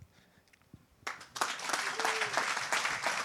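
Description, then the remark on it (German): An audience breaks into applause after a second of quiet, the dense crackle of many hands clapping building quickly and holding steady at a fairly loud level. “Applaus”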